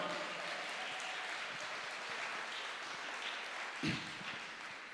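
Steady audience applause fills the whole span, a dense wash of many hands clapping, with one slightly louder thump near the end and no voices.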